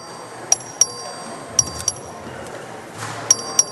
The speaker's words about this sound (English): This is a record vote. The clerk will ring the bell.